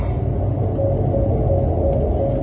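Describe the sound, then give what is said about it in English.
Steady low engine rumble from a car fills the whole stretch, a constant droning hum with a faint higher whine riding on top, fairly loud with no talking. “Excuse my car. I don't know if y'all heard that or not”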